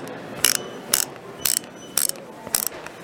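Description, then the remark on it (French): A ratchet wrench clicks in five short, bright bursts spaced about half a second apart, each a quick rattle of clicks, with no talking. “Bravo, ah la clé à cliquer.”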